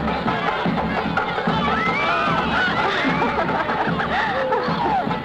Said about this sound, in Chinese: 婚礼的气氛在人们的欢呼中达到了高潮。